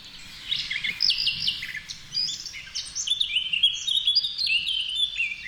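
High, fluting bird song with rapid varied phrases and whistled notes, continuous and fairly clear, played as a reference recording from a bird identification app, with a low background rumble.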